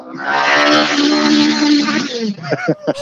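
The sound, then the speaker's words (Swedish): A racing car engine drones at steady high revs for about two seconds, loud and buzzing with a strong harmonic whine, as the car heads down into a right-hand turn toward the finish, then fades as people start talking. “När det kommer en jätteintressant bil här nu.”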